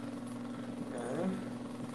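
An electric fan labelled 'turbo silencioso max' runs noisily, giving off a steady, loud motor hum with a low droning buzz and a constant airy whoosh that never lets up.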